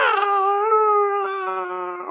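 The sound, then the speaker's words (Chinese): A voice imitates the yowl of a tomcat named Clinton, shut in a toilet at night and wailing all night: one long, wailing cry, steady then sagging slightly in pitch, loud and rich in overtones, like a crying child, held for about two seconds. “那只公猫会整夜通宵，因为相思成苦而不停的嚎啕，发出小孩哭泣一般的声音。”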